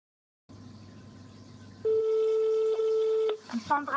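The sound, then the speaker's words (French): A steady electronic telephone ringing tone sounds on an outgoing call to a phone number given to claim a prize, a long continuous beep over low background hum, then cuts off as brief clicks and a voice begin. “Eh bien, vous savez quoi J'ai téléphoné. On écoute.”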